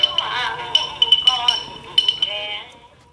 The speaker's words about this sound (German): Vietnamesischer Gesang klingt aus einem alten Kassettenrekorder. Der hängt an einem Baum mitten im Garten.